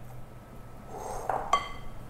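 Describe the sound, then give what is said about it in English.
A spatula gently folds batter into egg whites in a glass bowl with a soft, wet swish, ending in one bright clink of the utensil against the glass rim. Fairly quiet, with no talking. “Then I'm going to gently fold it and make sure there are no more streaks of uh, egg whites remaining.”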